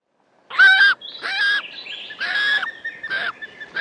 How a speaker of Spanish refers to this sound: Águila.